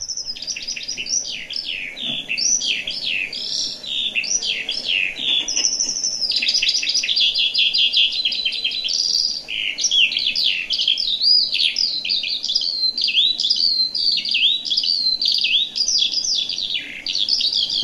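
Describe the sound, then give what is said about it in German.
A recording of a songbird plays a rapid, unbroken stream of high chirps, trills and warbles for the whole stretch, loud, with no pauses between phrases. “ich lasse mal einmal den, den Vogel laufen, dass man den auch mal hört”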